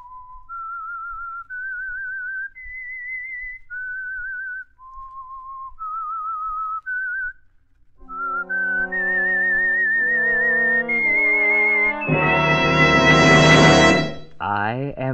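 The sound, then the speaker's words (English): A lone, clear whistled tune steps through a slow, wavering melody, then an orchestra joins beneath it and swells into a loud, brassy climax near the end; the opening theme of the radio drama The Whistler, presented by the Signal Oil Company. “The Signal Oil Company and your neighborhood signal dealer bring you another curious story by The Whistler.”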